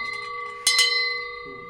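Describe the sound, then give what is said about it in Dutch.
A large office celebration bell, rung for big successes, rings with a bright, sustained metallic tone, struck twice in quick succession partway through, its clear ringing hum lingering and slowly fading. “we hebben ook een grote juichbel voor grote successen.”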